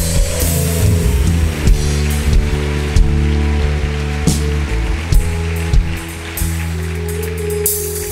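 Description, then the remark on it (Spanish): An audience gives loud applause for a group of boys, filling the whole stretch with a dense, steady wash of clapping with sharper bursts now and then, over a low sustained humming tone. “Den un aplauso fuerte a los muchachos.”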